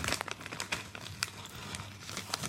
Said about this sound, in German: Also die Kinder müffeln übrigens nebenbei die angebrochene äh, Tüte Kettle Chips Lightly Sorted.